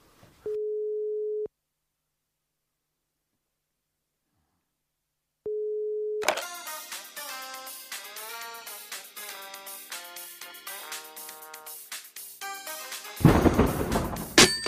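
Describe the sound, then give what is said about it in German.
A steady telephone dial tone sounds twice, each about a second long, separated by several seconds of silence, before loud music with a busy, crashing ending takes over. “Ich habe gleich, hab gleich ein Amt.”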